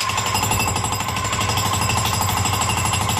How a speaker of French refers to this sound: C'est quoi ça une présentation de spectacle en chantier. Ah, D'où mes marteaux piqueurs, donc soyez indulgents, vous verrez sur scène une œuvre en création